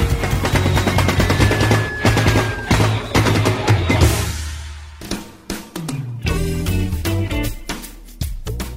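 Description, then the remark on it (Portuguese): A short instrumental jingle: busy, rapid drum rolls under sustained melodic tones, dropping out briefly before a run of punchy staccato hits. Loud throughout, with no voices. “mas nós vamos conhecer todos os detalhes da sua carreira logo depois da nossa vírgula sonora.”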